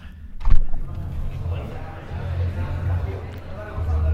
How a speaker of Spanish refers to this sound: Y ahora para que veáis el resultado vamos a salir, voy a abrir la puerta y vais a escuchar lo que se escucha, a ver si lo pilla la grabadora.